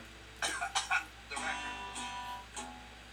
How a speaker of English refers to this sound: I just love the cough at the end.